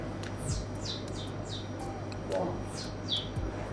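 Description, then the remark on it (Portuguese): A person imitates birds chirping with their mouth: a run of quick, high, downward-sliding whistles in an uneven rhythm, moderately loud over a low steady hum. “ou fazer sons, fazer, fazer sons que, que as pessoas não estejam habituadas a ouvir da boca das pessoas, como uma coisa que eu faço é o som dos passarinhos, que é.”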